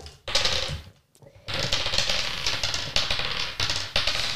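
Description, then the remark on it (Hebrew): Three ten-sided dice rolled against willpower for damage in a game clatter and rattle across a hard surface, a dense run of quick clicks from several rolls at once, pausing briefly before another burst of tumbling dice continues. “זה שלוש קוביות של 10 מול הכוח רצון.”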